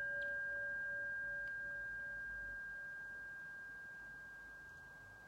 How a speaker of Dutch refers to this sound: En hoor je het geluid van de klankschaal als eindsignaal.